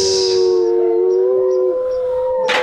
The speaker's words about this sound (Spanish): Ya, es que si no cierran la puerta van a seguir aullando